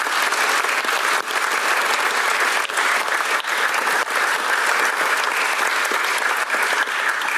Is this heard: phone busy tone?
no